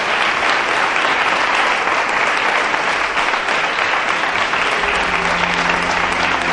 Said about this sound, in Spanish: Un fuerte aplauso para aquí los compañeros de la mesa.